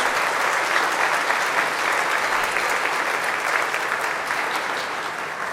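A church audience claps steadily to welcome children who have made their second communion, dense overlapping applause holding at a fairly loud, even level for several seconds before easing slightly toward the end.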